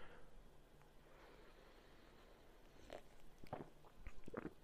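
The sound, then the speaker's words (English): Quiet sipping of coffee from a cup: a few short, wet slurping sounds clustered toward the end, with soft breathing between them and no talking. “And so, forgive me, I'm just going to be sipping my coffee as we talk and have this conversation.”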